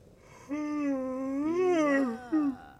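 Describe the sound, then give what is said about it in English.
Wolves howling: one long, mournful howl that wavers and rises slightly in pitch before sliding down, followed by a brief, shorter howl at the end, with no talking. “The, the wolves. They want to eat you and Santa.”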